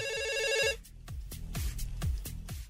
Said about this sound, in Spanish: contesta. Tenemos llamada.